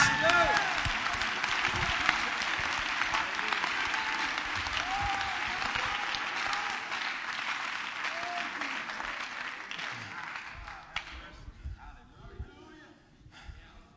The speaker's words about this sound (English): Clap your hands and give Him praise.